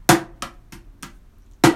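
Hands strike a cajon in a steady pulse, playing the fourth beat of a 16-beat pattern with alternating right and left hands: one loud accented slap giving the snare-drum sound, followed by three softer hits, then another strong accent, with no voices.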